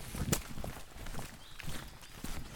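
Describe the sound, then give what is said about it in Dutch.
Footsteps walking outdoors at a steady, unhurried pace toward the Ratumse Steen, a very large stone, with soft crunching impacts repeating over a quiet open-air background. “We lopen even een stukje naar eh, de Ratumse Steen.”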